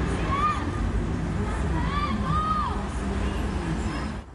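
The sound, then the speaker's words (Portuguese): Several voices shout and cry out during a street robbery on Avenida Rio Branco in central São Paulo, over a dense, steady din of street noise and crowd hubbub, the raised calls rising briefly above the constant background rumble. “Aqui é possível ouvir gritos enquanto mais um crime acontece.”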